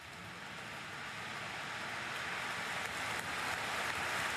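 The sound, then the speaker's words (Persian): Several hundred thousand people applaud outside a church after a speech by Diana's brother, the clapping blurred into a dense, steady roar like surf that slowly swells louder, with no voices. “بعد از سخرانی صدای کف زدن چند صد هزار نفر از پشت دره کلیسا مثل یه موج وارد کلیسا شد.”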